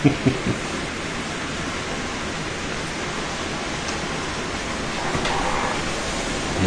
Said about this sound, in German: Das ist der Wawa-Effekt vom Regen.